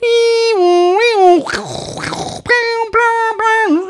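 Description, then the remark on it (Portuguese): A dial-up modem connection screech: wavering, buzzy tones, then a burst of harsh static hiss, then choppy stepped tones. It is loud and continuous, with no talking. “Nunca entendi esse som dos modems.”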